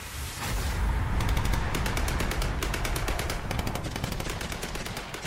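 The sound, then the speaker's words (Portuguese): Rapid bursts of gunfire from street fighting in Conakry crackle continuously for several seconds, sharp repeated shots layered over a loud, rumbling background with no voices. “Ainda há combates nas ruas de Conakry quando Sekou Touré acusa o Portugal fascista de recrutar e treinar centenas de mercenários para fazerem um golpe de Estado no país e pede a intervenção das Nações Unidas.”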